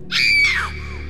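A woman's single sharp, high-pitched scream of fright bursts out loud and close, rising then trailing off after about half a second over a low background hum.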